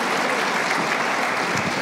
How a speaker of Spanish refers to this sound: Si ese aplauso es para el Señor, déselo con todo su corazón porque Él se lo merece.